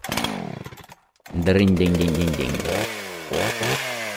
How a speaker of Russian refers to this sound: Ну а дальше мы достали пилу «Дружба».